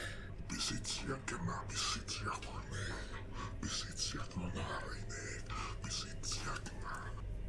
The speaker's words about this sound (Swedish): Men jag, men jag hör, ni hör nog något hest viskande där också. Precis innan, från under slöjan liksom så här.